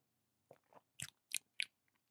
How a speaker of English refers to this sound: I, I told you what I did, but I'm going to sip. Hold on.